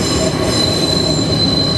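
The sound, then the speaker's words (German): A thin, steady, aggressive high-pitched squeal of train wheels in a curve, a whistling tone said to mean a north wind, rides over a continuous low rumble of rolling rail cars, holding at an even level for the whole stretch with no voices. “Du hörst jetzt, wenn es so pfeift, so aggressiv, dann ist äh, Nordwind.”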